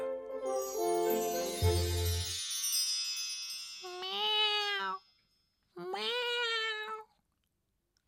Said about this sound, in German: Oh, eine Katze. Äh, hallo. Äh, äh, wo, wo, wo kommst du denn jetzt her?